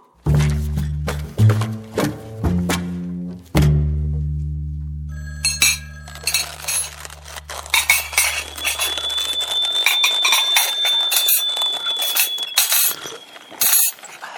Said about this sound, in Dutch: Neem jij hem? Waarom ik? Het is natuurlijk voor jou. Ik heb de hele middag vergaderd. Dat is toch geen reden om de telefoon niet aan te nemen?